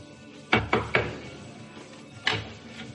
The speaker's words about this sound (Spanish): Llama a la puerta de al lado.